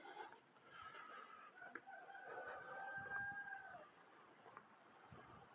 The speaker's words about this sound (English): Is that a dog or a rooster? Hmm. Sounds like a rooster.